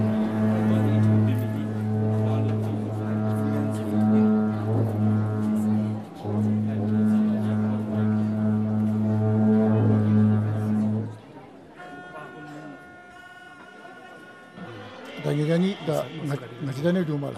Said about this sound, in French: Ceci annonce la fin de la danse. Quand vous entendez les grandes trompes, les grandes trompes sont toujours au début et à la fin des danses.